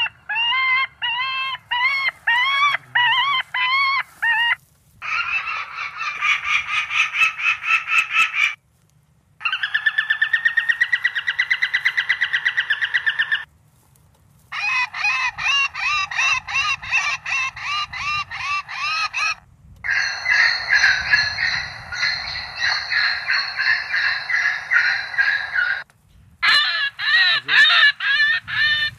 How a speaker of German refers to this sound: Ein Zufallsgenerator spielt jetzt verschiedene Rufe ab. Das ist teilweise von den Staren selber Angstrufe, dann aber auch äh, äh, Schreie von Falken, von Habicht, von Sperber, also von den, von den natürlichen Feinden von den Staren.